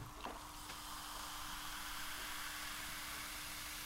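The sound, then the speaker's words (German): Steady close-up fizzing of sparkling wine in a glass, a soft continuous hiss of popping bubbles held near the microphone with no talking. “Halt's näher am Mikrofon. Oh, ein Tröpfchen. Bitteschön. Mm, oh, danke schön. Das ist lauter als gedacht.”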